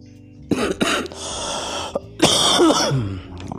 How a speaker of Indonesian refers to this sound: maaf batuk